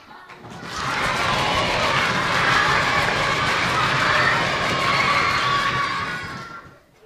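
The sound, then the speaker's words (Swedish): A crowd stamps their feet, claps their hands and shouts hallelujah all at once, a dense, loud, sustained roar of voices over rumbling footfalls that swells quickly and fades out after about six seconds. “Stampar fötterna, klappar händerna och ropar halleluja”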